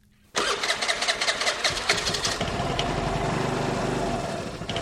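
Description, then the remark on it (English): The small engine of a brand-new, bright yellow motor scooter cranks and catches, sputtering with rapid pulses before settling into a steady, buzzing idle. No one speaks. “My brand new, bright yellow scooter arrived a few months ago.”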